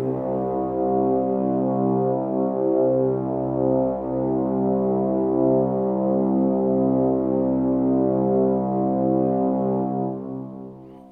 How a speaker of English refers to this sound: Oh, I know what it is. It is Roldan who's blowing his horn asking for help.